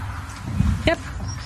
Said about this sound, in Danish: Beklager katten, der udviste et stort europæisk engagement.